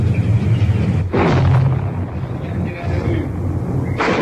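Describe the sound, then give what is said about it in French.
Russian tanks rumble past between the Duna hotel and the Danube in Budapest, with a loud, continuous low roar of engines and grinding tracks, broken by two sharp surges of harsh, noisy clatter. “Derrière l'hôtel du Duna, entre l'hôtel du Duna et le Danube, voici les chars russes qui passent.”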